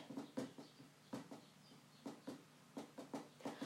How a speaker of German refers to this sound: ich klopfe jetzt gerade auf mein Bett.